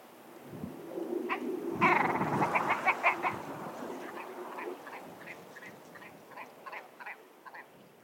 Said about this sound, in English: You've got, I think you've got a clip of an actual grouse. I mean, it's quite hard to record grouse, but we you did manage to yeah. record one once.